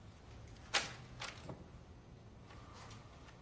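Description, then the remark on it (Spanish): A small ballpoint pen, taken from a pocket, is tossed onto a paper on a table, landing with one sharp, light tap, followed by a couple of softer brushing touches and faint rustling. “saca un bolígrafo de su bolsillo y lo tira sobre el papel.”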